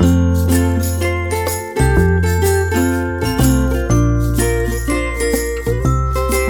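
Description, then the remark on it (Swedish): A bright, jingly music loop plays on its own during a break, with a steady bass line and twinkling bell-like chimes repeating in a regular rhythm at a moderate, even volume. No one speaks. “Uh, nu får ni lyssna på loopen en stund.”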